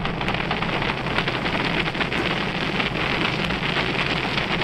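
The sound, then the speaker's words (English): Thunderous Apollo rocket engine roar at liftoff, a dense, continuous rumble with crackling texture that stays loud and steady throughout, with no voices over it. “I had a noise lift off the rocket.”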